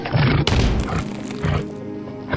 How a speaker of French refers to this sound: Et le cerf embrocha l'enfant de ses bois.